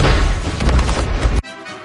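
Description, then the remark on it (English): A loud explosion sound effect, a thick roaring blast with deep rumble that sustains for over a second before cutting off abruptly, leaving only faint quiet afterward. “I am here for explosions.”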